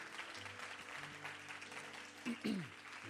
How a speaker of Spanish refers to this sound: Vamos, dale tu mejor aplauso en esta tarde.